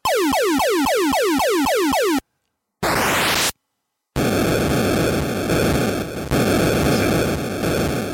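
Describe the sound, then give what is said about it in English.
Atari 2600 video game sound effects: a fast run of repeated descending electronic zaps, then a burst of noisy rising sweep, followed by a buzzy, noisy tone-laden drone. Loud, harsh and synthetic, with no voices. “Here is the sound from that game and see if you can guess it”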